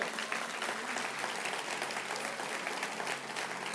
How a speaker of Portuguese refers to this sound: Você pode aplaudir.